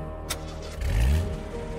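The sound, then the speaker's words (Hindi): A car engine turns over after a sharp click, its low rumble swelling into a brief rev before settling to a steady idle as the car pulls away from a palace, with no talking. “गाड़ी अभी महल से सौ मीटर ही दूर थी कि सामने एक गड्ढा आया”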